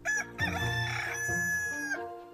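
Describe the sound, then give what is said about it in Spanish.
A rooster crows a loud cock-a-doodle-doo in a farmyard, a short opening note followed by a long, sustained, slightly wavering call that drops off at the end. “Otra vez canta el gallo.”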